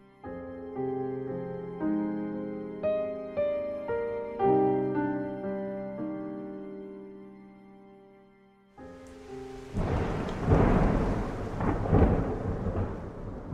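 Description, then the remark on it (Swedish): A melodic musical passage gives way to a loud thunderstorm: a dense roar of heavy rain with deep rumbling thunder swelling in a couple of strong bursts near the end. “Borta i Jonestown så hade stormen börjat lugna ner sig.”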